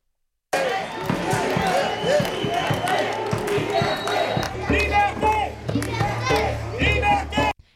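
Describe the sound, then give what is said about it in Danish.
A protest crowd in France, demonstrating against corona rules and compulsory vaccination, chanting "Liberté" (freedom) and shouting, a loud, dense mass of voices that runs unbroken for about seven seconds, with scattered thumps and higher cries rising above it. “Liberté råber de altså frihed.”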